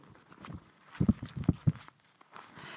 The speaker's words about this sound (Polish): Jest to po prostu przepiękne. E, ten, e, ten artystyczny projekt Gośki się nazywa Projekt Dobro i mój zeszyt to jest jakieś samo dobro. Słuchajcie tego papieru.